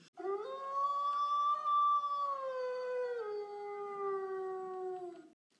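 A wolf lets out one long, sustained howl that swells at the start and then slowly slides downward in pitch, loud, with no voices or other sounds around it.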